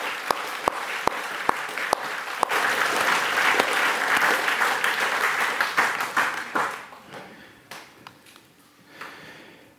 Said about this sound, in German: Aber ich glaube, wir dürfen Marianne doch einen kräftigen Applaus geben, für wie sie das gemacht hat.